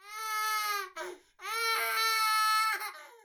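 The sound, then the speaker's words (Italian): An infant cries a basal cry in two long, steady wails separated by a brief gasping breath, loud, with a rhythmic, even quality rather than sharp screams. “C'è il pianto definito basale”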